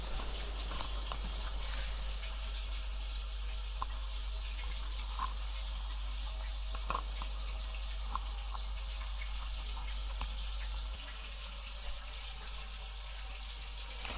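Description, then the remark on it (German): Quiet liquid swishing as a spoon stirs about a teaspoon of potato starch smooth with a tablespoon of water in a small dish, with a few faint scattered clinks over a steady hiss and no one speaking. “und, oder ihr sagt der Starke dazu, rühr die mit einem Esslöffel Wasser glatt, also ich nehme einen Teelöffel ungefähr von der Stärke und rühre die dann glatt.”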